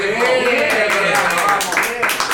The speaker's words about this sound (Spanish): Así que nada. Se aplauden, aplauden todos. Un fuerte aplauso para la cara acá, que son todos. Un aplauso para la iniciativa.